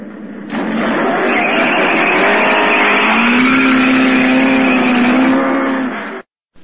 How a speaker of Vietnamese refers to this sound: chiếc xe vọt đi cả hai chìm vào đám xe cộ biến mất tiêu